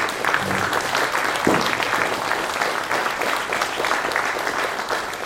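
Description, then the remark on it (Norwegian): Sustained applause from an audience, a dense steady patter of many hands clapping at fairly even loudness throughout, with no one speaking over it. “Og jeg gi dem en applaus.”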